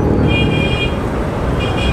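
Steady, loud city traffic rumble from delivery vehicles travelling through the city fills the scene while a car horn blares twice: a longer high-pitched honk, then a second one after a short pause.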